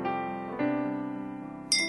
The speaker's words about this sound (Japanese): カチンというグラスが触れる音。